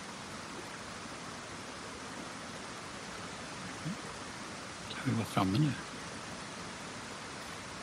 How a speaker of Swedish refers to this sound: Men uh, mm. då hör ni ett ljud längre fram. Det låter som ett eh, vattenfall.